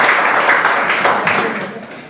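Audience applause welcoming the author of a book as he is called up, a dense steady patter of many hands clapping at once, loud at first and gradually tapering off toward the end.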